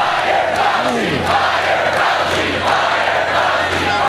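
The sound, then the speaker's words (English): A large crowd at a presidential campaign rally in Opa-locka, Florida, chants loudly in unison, a dense roar of many voices continuing with rhythmic swells, energetic, with no single speaker standing out. “During that campaign stop, the crowd started chanting.”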